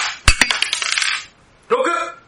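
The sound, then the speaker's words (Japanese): Dice clatter across a hard tabletop in a quick burst of sharp clicks and rattles, settling within a second; a short, brighter ringing rattle follows after a brief pause. “レッツサイコロタイム”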